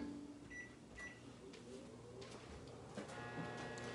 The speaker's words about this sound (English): All right, so I'm gonna put the other one in the microwave.